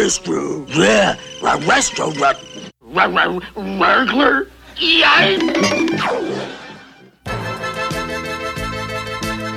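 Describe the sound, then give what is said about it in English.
Voice actor Don Messick, as Astro the Dog from The Jetsons' 1985 episodes, imitates the cartoon dog, with several seconds of warbling, growly dog-like talking and yelps, then a brief pause before bright music takes over. “And in 1985, Don Messick returned as the voice of Astro the Dog on the new episodes of The Jetsons, as well as other additional peripheral characters.”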